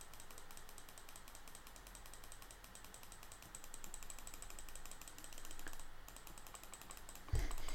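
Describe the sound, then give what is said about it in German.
Rapid, continuous computer mouse clicking while playing a clicking game, a dense stream of quick clicks running steadily for several seconds at low volume, with no talking and only a brief thump near the end. “pro Mausclick werde ich immer reicher”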